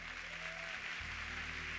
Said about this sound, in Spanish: Bienvenida, súper bienvenidos. Súper bienvenidos allá atrás. Este aplauso es para ustedes. Bienvenida.